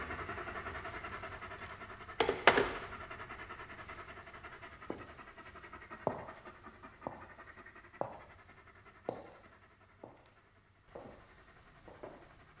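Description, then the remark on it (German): Dogs pant heavily and steadily, quick rhythmic breaths with a sharper burst near the start and regular louder huffs about once a second, no voices. “Die Hunde haben ihn zerrissen.”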